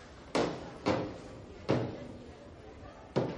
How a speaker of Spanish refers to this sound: Abre una puerta blindada. La madre le sigue.